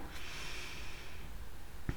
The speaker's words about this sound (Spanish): Vamos a dar una respiración profunda, inhala